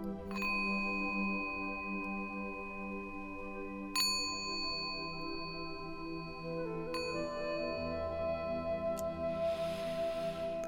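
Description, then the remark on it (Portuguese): A meditation bell rings with a long, sustained shimmering tone, struck again at intervals so the bright overtones layer and linger; steady and clear, with no voices. “E agora você vai ouvir o sino e se concentrar na luz do sol dentro da sua cabeça.”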